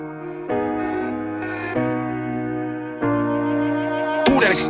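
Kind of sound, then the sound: pop song playing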